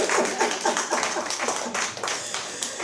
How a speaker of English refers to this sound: And uh, would you do me a favor? Would you give our praise leader a round of applause because she does such a wonderful job.